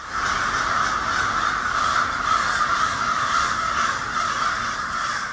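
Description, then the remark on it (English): A dense, continuous roar of hundreds of crows cawing at once from a roost on every branch of the trees on a residential block, loud and unbroken, with overlapping harsh calls merging into a steady wall of noise and no one speaking. “It's like hundreds of them on every twig of every branch of every tree, and they're all screaming.”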